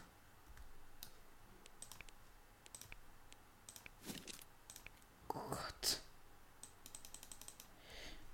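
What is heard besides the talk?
rapid computer mouse clicking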